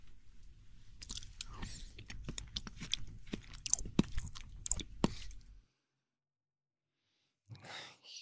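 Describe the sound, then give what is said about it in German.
Wet chewing with crunchy, irregular bites and clicks for about five seconds, then silence, followed by a brief breathy sound near the end. “dass es Menschen gibt, die können das, die flippen aus, wenn sie äh, andere Menschen essen äh, hören.”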